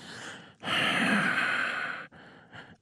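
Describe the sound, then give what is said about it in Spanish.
A voice makes heavy, menacing huffing breaths: a long, loud, forceful exhale followed by two shorter, softer puffs, as if imitating a lurking killer. “usted ya se dio cuenta que yo soy el asesino porque estoy bufando.”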